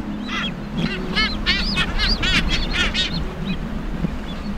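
Many birds squawk loudly and continuously at sunset on Siriba Island, harsh honking calls overlapping one another, over a steady low background rumble.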